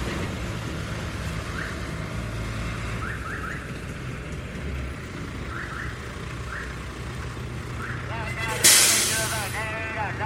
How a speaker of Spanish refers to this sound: Llegó. Llegó, este es un camioncito más pequeño que el anterior.